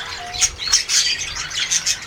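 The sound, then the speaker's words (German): Birds chirp and squawk in a busy overlapping chorus, with sharp high calls repeating every fraction of a second, moderately loud, no voices present. “Hallo liebe Vögel, und was machen Sie so in den Ferien?”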